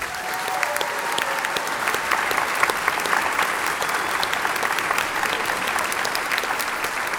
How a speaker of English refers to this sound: Can we get a big round of applause for our panel here?